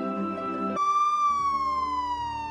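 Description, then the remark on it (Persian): A siren wails loud, its bright tone gliding slowly downward after a short burst of low rumbling noise at the start, with no voices present. “نورا سعی کرد صدای آژیر را نشنیده بگیرد”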